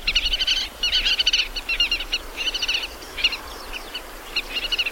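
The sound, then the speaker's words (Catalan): Wetland birds feeding in rice fields during summer call in rapid bursts of high, bright chirps, repeating in clusters with short pauses between, steady throughout over a faint low rumble with no talking. “mentre es va creixent l'arròs durant tot l'estiu i les aus van anar a alimentar-se”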